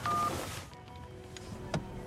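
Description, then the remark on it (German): A telephone is hung up: a brief rush of noise with a faint electronic tone, then quiet, and a single sharp plastic click toward the end. No one speaks. “Lon legt auf.”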